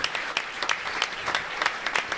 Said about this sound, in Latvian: Aplaus viņam! Paldies jums!